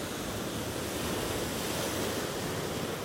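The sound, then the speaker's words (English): Waves on Lake Ontario crash against a breakwater of placed rocks on the shore in the Beaches neighbourhood of Toronto, in a steady, roaring wash of surf with some wind noise, loud, with no voices. “these these uh, these waves are huge.”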